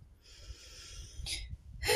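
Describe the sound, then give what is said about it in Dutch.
Heavy panting from a person out walking: quick breathy huffs with sharper bursts of exhaled air, catching their breath after exertion, with no talking. “Nou, ik ga heel veel stilstaan, want ik ben aan het wandelen. En ik merk dat ik een beetje gelopen hijgen.”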